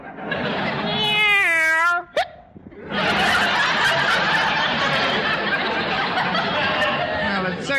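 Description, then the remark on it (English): A cat named Minerva in a kitchen gives one loud, drawn-out meow with a wavering pitch, then it cuts off. Dense, noisy sound follows, with voices and what sounds like snickering laughter. “the way you eat, you should oink instead of meowing.”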